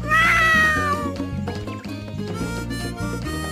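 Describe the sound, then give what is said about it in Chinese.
A baby jaguar in a Dora story gives one high, wavering mew at the start, rising and then sliding down, over steady background music that carries on alone after the cry fades. “看呐，是美洲虎宝宝。”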